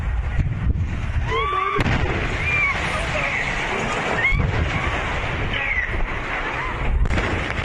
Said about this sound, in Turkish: Çok geçmeden gaz bir kıvılcımla alev aldı. Patlamanın şiddetiyle çevredekiler korku içinde kaçmaya başladı.